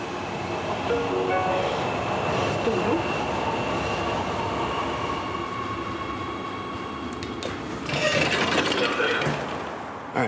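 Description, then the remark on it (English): An Oslo metro train rumbles steadily along the tracks from inside the carriage, with a constant low roar, a faint tonal whine, and a brief burst of hissing, clattering noise near the end. “But the sound you're hearing now, that's the sound of the metro in Oslo.”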